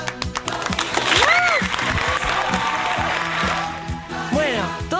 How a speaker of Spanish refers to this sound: Gloria Rodríguez, primero la recibimos con este fuerte aplauso. ¡Vamos, Gloria!